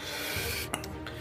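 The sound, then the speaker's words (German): Loud rubbing and scraping right against a microphone as a cat scratches itself on it: a dense rasping friction with a few sharper bumps and scratches. “Das, das Ruckeln, was ihr hört, das ist, der, das ist unser Leo. Er hat entdeckt, dass man sich an meinem Mikrofon auch kratzen kann”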